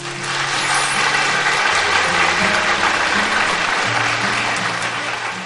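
Sustained audience applause fills the whole stretch, a dense steady patter of many hands clapping at an even loudness, with a low droning hum running underneath and no voices.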